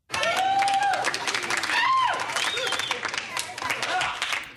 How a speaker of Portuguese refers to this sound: então eu gostaria de uma salva de palmas para ele. Vou dar uma melhorada nessas palmas via edição porque o Bento merece.